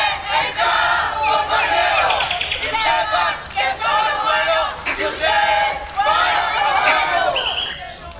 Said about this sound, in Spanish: La ciudadanía democrática sigue gritando y manifestándose con consignas como, por nuestros muertos, ni un minuto de silencio.